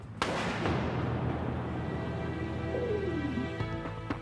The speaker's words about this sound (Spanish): Entonces empezó la refriega. A lo largo de 30 segundos se escucharon los disparos.